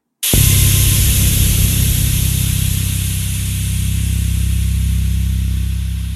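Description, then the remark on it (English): A loud, steady hiss of steam bursts on abruptly and keeps rushing for several seconds over a deep, constant low rumble: steam from the boiler bumping through the pipes of an old apartment building as it turns cold outside. “It must have gotten cold outside because the steam from the boiler was bumping around through the pipes.”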